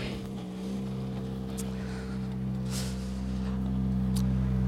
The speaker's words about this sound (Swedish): Nu kommer vi ihåg att de här bilarna låter ganska mycket inuti så vi får se då om, eh, om man kanske stänger av bilen till oss.